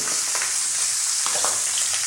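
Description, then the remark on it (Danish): Steady, loud sizzling of lamb rump searing in a hot frying pan for about 45 seconds per side to form a crust, a dense hiss with brief crackling pops, continuous throughout with no one talking. “Og så starter jeg mit ur, for jeg vil faktisk godt give den cirka 45 sekunder på hver side.”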